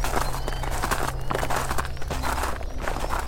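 Horses' hooves clip-clop in a steady walking rhythm, the repeated knocks continuous over a constant low background rumble, with no voices.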